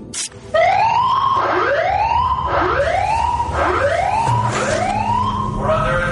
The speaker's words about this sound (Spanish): hacer sonar nuestra propia alarma de zafarrancho de combate, que sería una sirena de batalla de la Segunda Guerra Mundial